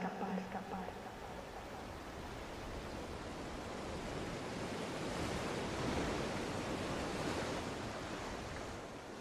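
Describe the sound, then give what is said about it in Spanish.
Ocean waves break and wash steadily onto the shore in a broad, continuous roar, swelling slightly toward the middle, with a faint breath of wind; no one speaks. “Estoy en la orilla del mar. El viento acaricia mi cara y mis pies están llenos de arena”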